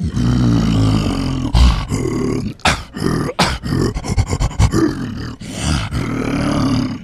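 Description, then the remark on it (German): A human voice imitates a monkey's roar without any device: loud, raspy growling bursts broken by brief pauses and a rapid stuttering run in the middle, unaccompanied. “Der Affe als solcher würde pur so klingen.”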